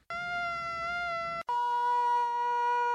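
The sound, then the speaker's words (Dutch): Two steady, buzzing mosquito wingbeat whines play back to back, split by a brief gap: first a male mosquito, then a higher-pitched female. Both are loud, with no talking. “Uh, nou ja, we gaan eerst naar, gewoon naar twee muggen Jullie moeten raden wie ja, is.”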